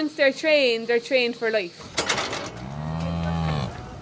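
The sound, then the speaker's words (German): A herd of dairy cows moo, one long low moo after a shorter, higher bellow, with clattering and shuffling in the background. “Normalerweise müssen wir nur 20 oder 30 Kühe trainieren. Der Rest der Herde folgt dann von selbst.”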